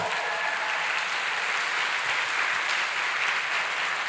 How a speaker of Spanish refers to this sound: ¿Cuántos dicen amén? Esta promesa merece un fuerte aplauso.